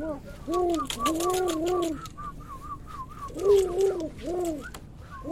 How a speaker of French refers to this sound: C'est les oiseaux moroses de Paris, ils sont pas forcément hyper. Euh, enregistre ça, on enregistre ça, enregistre ça. Et qu'est-ce qu'ils disent Ils commencent à se disputer